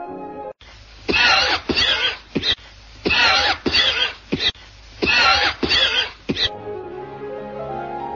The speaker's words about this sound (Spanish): deben a que los cilios vibrátiles que estuvieron inmóviles por la noche ahora impelen el moco protector. Mientras se sigue fumando, la tos va haciéndose crónica.